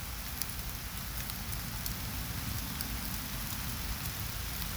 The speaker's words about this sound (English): Listen to the rain. Enjoy the pitter patter the drops. of the rain.